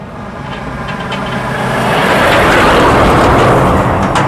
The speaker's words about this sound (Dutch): Komt vrachtwagen. grote vrachtwagen.